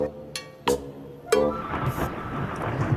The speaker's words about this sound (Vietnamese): Ui Ui Sấm to nhỉ Trời sắp mưa rồi đấy Ôi trời ơi, ôi trời ơi, sấm rồi, sấm rồi.